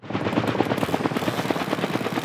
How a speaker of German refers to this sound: Ein Hubschrauber steht über den Bahngleisen. Für diese Arbeiten ist die Helikopter-Spezialfirma Rotex extra aus der Schweiz angerückt.